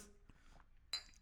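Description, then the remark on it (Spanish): Glasses of water clink together once in a quick toast in a living room at half past ten in the morning, a bright, brief ring that fades fast, with no one speaking. “Salud.”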